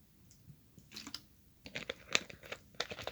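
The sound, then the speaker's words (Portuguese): Someone drinks from a plastic water bottle: irregular crinkling and crackling bursts as the bottle is squeezed and handled, growing busier toward the end, with no talking. “Inclusive, vou beber uma água aqui agora.”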